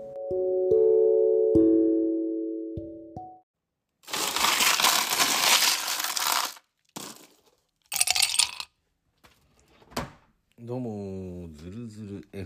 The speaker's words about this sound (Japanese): 今ですね、ハイボールを作りながら、録音を開始しているんですけども、えっ、ー、と、目の前にはですね、角杯、えっ、ー、と、ホワイトホース、ティーチャーズのウイスキーがあるんですけども、えー、ティーチャーズをハイボールにして、録音していきたいと思います。